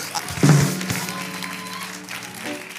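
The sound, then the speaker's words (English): Scattered clapping from a church audience at a revival, at moderate volume, carrying on steadily for a few seconds over a sustained, low musical tone. “I got three claps. I told you. Somebody help me preach.”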